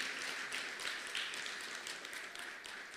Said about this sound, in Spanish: pero sobre todo para este equipo de mujeres y la representación digna que en ellos opera de los hombres, porque también en COPROEN hay hombres que trabajan y son parte de la directiva para quien pido un caluroso aplauso.